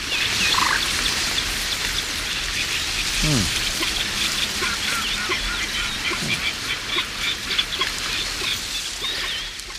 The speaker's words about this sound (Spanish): Y la fuerza 2, viento flojito, de 6 a 11 kilómetros por hora. Eh, los carrizos de una laguna se eh, mueven, pero no tapan las voces de las aves de los carrizales.